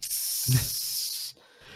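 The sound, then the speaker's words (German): A steady, bright electronic hiss like line static comes through a Discord voice connection while the internet fluctuates, running just over a second with a brief low thump partway through, then cuts off abruptly, leaving near silence. “Weil Ich hätte auch gerade ein Zischen einfach durch Discord.”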